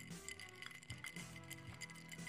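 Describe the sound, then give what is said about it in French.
A large ice cube clinks against the inside of a glass several times in an irregular rhythm, each bright tap ringing briefly. It is fairly quiet, with no voices. “Oh, toi, on l'entend mieux vu que c'est une grosse glace.”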